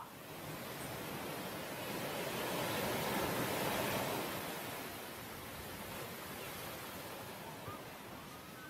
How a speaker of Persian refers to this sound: آیا واقعا ما صدای دریا رو میشنیدیم و اون صدایی که از صدف به گوش ما میخورد صدای دریا بود؟ واقعیت اینه که این صدا تنها پژواک جریان خون مجرای گوش ماست. این صدا صدای خودته.